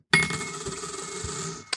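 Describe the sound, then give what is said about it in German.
Euro coins (50 cents) clatter into a glass jar, a bright metallic jingle with ringing high overtones that sustains and then fades, followed by one last small clink. “Wenn ich das falsch errate, müssen wir einen Euro in ein Glas werfen.”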